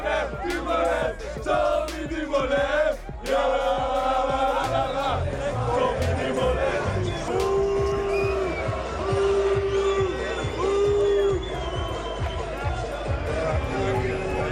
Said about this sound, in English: we just heard a lot of booing. There was this, there was Sky, but not even the bus. I know. It was the team truck and the mechanic, the poor mechanic.